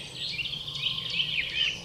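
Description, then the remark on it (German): Birds sing steadily outdoors, several high chirps and trills overlapping in a busy chorus over a low ambient hum, with no one speaking. “Jetzt in diesem Moment vernimmst du meine Botschaft inmitten der Natur, hörst dem Gesang der Vögel zu”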